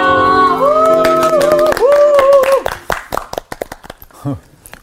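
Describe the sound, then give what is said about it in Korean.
Several hosts clap quickly and cheer with high, sustained whoops for about two and a half seconds to welcome a teacher arriving as guest. The applause then thins to scattered claps, and a voice comes in near the end. “왜 환호를 하고 그래?”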